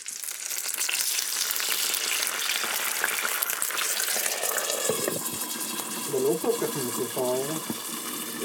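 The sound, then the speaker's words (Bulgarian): Loud, steady sizzling and crackling from a hot pan after water is added to cook food under a lid, hissing continuously throughout, with a voice briefly speaking over the sizzle near the end. “слагам вода и ги оставям да се сготвят на пая малко за, под, под, под капак.”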